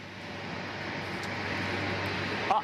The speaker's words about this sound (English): It's a little loud. I got an engine, a plane engine behind me.